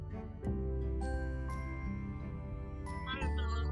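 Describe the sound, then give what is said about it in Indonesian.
A phone ringing tone plays as a call is placed to a guest, over steady background music, a few bright electronic chime-like notes sounding clearly in the middle of the mix, with no voices. “kita langsung telepon aja ya kita telepon sekarang tamunya ini berdering coy”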